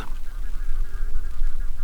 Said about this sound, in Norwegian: Og en flokk fugler med store vingeflater går helt ned mot fjellbjørkene.